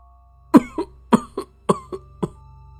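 A grandmother coughs violently in four harsh bursts, each a loud hacking cough followed by a weaker second one, repeating at a steady rhythm over a low constant hum.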